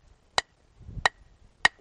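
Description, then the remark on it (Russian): Three sharp, bright strikes of stone on stone as a stone is struck to knock off flakes, a kind that breaks off in chunks rather than in even flakes, spaced about a second apart, each a crisp click-like crack with a ringing edge, with a soft low rumble between the second and third. “Даже если я ударю вот скол, то у нас такого ровного не получится. Да, у нас получится, он будет откалываться кусками.”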